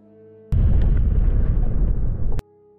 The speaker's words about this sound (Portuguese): Aí, 8 de dano. Começa a pegar fogo, tu vê que explode algo na nave.